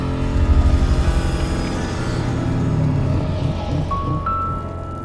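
Opening of a sung music number from the launch of the Alterac Valley mini-set, sung by the character Lady Prestor: dense, sustained orchestral-style chords hold at a steady, fairly loud level, and a bright high note comes in near the end. No talking.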